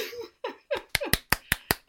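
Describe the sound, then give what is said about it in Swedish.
A few excited laughing vocal sounds give way to about six crisp, sharp hand claps in a quick, steady rhythm, real hand applause rather than applause from a sound machine. “Oj, nu applåderar jag på riktigt utan ja. min maskin.”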